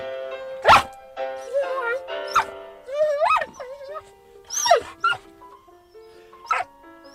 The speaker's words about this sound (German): Das ist ja wirklich zum, zum Stein erweichen. Heult Ihr Hund bei anderer Musik auch so? Nein. Sonst macht die Musik gar nichts aus.